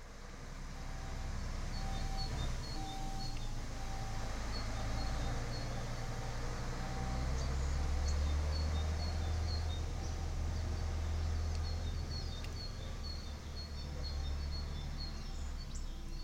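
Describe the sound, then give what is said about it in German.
A garbage truck's reversing beeper repeats in steady, evenly spaced tones over a low idling engine rumble, with birds chirping; the beeping stops about halfway through. “Wir haben eben gehört das Piepen eines Müllautos, das rückwärts fährt.”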